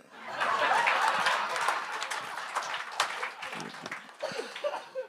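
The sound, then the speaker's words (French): An audience bursts into applause in answer to a question asking whether there are white people in the room: a dense wash of many hands clapping that swells quickly and holds steady for several seconds, with scattered cheers and a bit of laughter mixed in before it thins out. “Par applaudissement, y a-tu des, des blancs dans la salle?”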